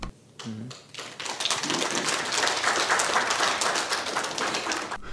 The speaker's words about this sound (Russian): Мы это сделаем. Бурные аплодисменты.